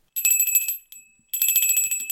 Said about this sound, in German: So, jetzt kommt was Spannendes. So ein kleines Glöckchen. Das ist ein Schlüsselanhänger mit einer Glocke dran.